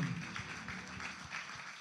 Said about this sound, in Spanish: Dele un fuerte aplauso, ofrenda de palmas al Señor.